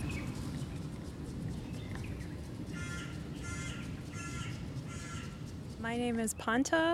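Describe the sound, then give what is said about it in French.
Birds and crows call repeatedly in a noisy outdoor setting in the heart of Tehran, Iran, with harsh caws growing louder near the end over a steady low rumble of traffic. “les oiseaux téhéranais en fond sonore”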